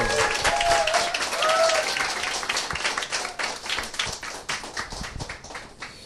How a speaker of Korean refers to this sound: 네, 박수로 맞이해 주세요. 네. 어서 오세요.